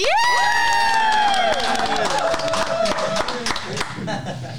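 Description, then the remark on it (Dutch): A live audience erupts in loud cheering and whooping, high shouted voices over a dense wash of clapping that stays strong for several seconds before easing slightly. “We nemen deze podcast op met live publiek. Laat je horen, jongens.”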